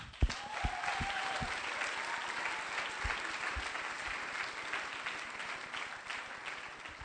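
A church audience in Blästun claps together to welcome a member called to the front, a steady, dense wash of applause that holds at an even level for about seven seconds, with a few sharper individual claps standing out and no talking.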